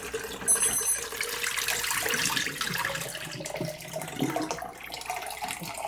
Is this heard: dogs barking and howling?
no